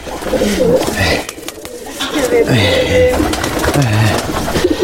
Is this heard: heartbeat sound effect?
no